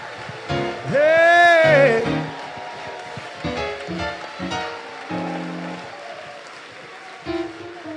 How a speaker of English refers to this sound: Now clap your hands, all ye people. Clap your hands, all ye people. If you love Jesus, give him a little glory.